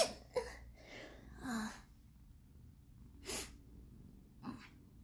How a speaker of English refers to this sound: Sorry, I had to sneeze. Mm. Okay, I'm fine now.